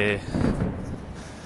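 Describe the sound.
A deep, muffled boom of fireworks outside rumbles, rolling out for about a second with a faint murmur of voice underneath.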